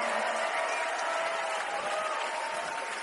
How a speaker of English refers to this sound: Thank you so much, ladies. Give them a huge round of applause for singing all night long.